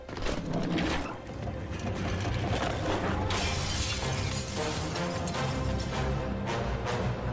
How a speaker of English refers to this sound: Cue the office chair through glass.